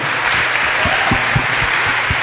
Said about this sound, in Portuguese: os aplausos de vocês também.